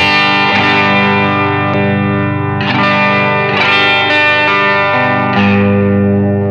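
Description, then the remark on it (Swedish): An electric guitar played through a subtle drive pedal plays sustained chords with a light overdrive grit, several strums ringing out in a slow sequence, fairly loud with no talking. “Utan nu är det drive-pedalen då lite grann.”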